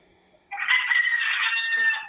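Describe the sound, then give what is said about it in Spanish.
A rooster lets out a single loud, drawn-out crow lasting about a second and a half, clear, with no talking over it. “Te va a comer ese gallo.”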